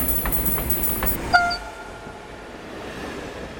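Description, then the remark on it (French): A passenger train bound for the big city rumbling along the rails with rhythmic clacks and a high metallic whine, then a short tonal whistle-like squeal before the noise settles into a softer, steady roll. “Bienvenue dans le train pour la grande ville.”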